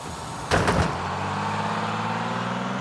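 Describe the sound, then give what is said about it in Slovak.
A bus door closes with a brief, loud rattling burst, then a steady low diesel engine rumble of a bus bound for Serbia continues. No one speaks. “Nasadá na prvý autobus smerom do Srbska urobiť doma poriadky.”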